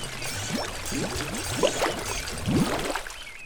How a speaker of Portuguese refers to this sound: puxa, você pode tirar água da bomba melhor do que eu. O balde já está quase cheio.